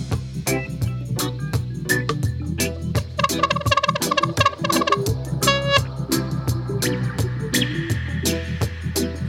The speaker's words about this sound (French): Et là, on est vraiment sur du pur son inspiré des dubsetters de ….